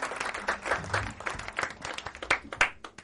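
A small group applauds, with dense, irregular clapping that stays fairly steady in loudness and has a few sharper claps standing out, and no voices over it.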